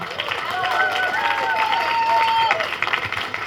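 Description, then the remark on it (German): A crowd applauds steadily, dense clapping filling the whole stretch at an even loudness, with a few thin, wavering cheers or whistles rising above it. “Also nochmal bitte letztmalig ein kräftiger Applaus an dieser Stelle.”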